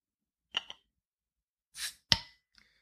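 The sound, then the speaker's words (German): A beer bottle with a tight-fitting cap is opened: a couple of small clicks, a short airy hiss, then one sharp, bright pop that rings off briefly, followed by faint clinks. No one speaks. “Jetzt sehr auch mal offen. Plopp.”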